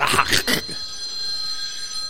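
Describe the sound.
A phone that was left switched on rings with a steady, bright electronic tone that carries on evenly after a brief burst of voices and laughter at the start.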